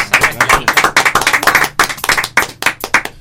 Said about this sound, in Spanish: Este, entonces los recibimos con un fuerte aplauso